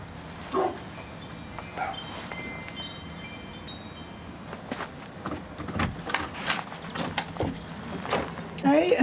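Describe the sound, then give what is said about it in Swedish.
A black Labrador gives a series of short, irregular barks and yips as visitors ring the doorbell, with brief gaps between them over a steady background hum and some scattered knocks. “är det ett annat skall vi hör när vi ringer på.”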